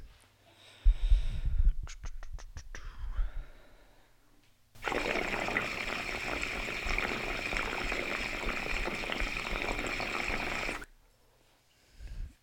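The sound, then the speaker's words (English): Gurgling and bubbling as air is drawn through water in a glass 14 millimeter bell recycler dab rig. It starts with short clicks and rumbles, then a steady, loud six-second rush of frothy bubbling before it stops abruptly. The water is frothy from about 30 dabs. “So, but I'm gonna pull on the um, original first ever 14 millimeter refined bell recycler just to show you guys that function a little bit and then I'll pull on the newer one so you can see.”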